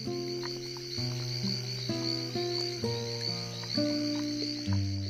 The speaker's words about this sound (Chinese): 耳畔是阵阵的蛙鸣和不知名的虫声。就在这样的寂静的大自然的合奏中，渐渐睡去。